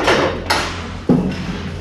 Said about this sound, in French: Il y a l'aquarelle qui va tomber. Il y a l'aquarelle qui va tomber, attention. Ah. voilà, ça c'est la vie à bord de l'astrolabe. Quand ça commence à tanguer.